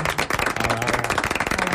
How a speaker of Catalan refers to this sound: Un aplaudiment per les il·lustradores